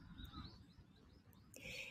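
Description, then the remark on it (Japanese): Birds call in a park in autumn during a walk: a few faint chirps early on, then a louder, sustained high call near the end, over a low steady background rumble with no one talking. “鳥の声聞こえますかね、今ちょうどね、泣いてましたね。”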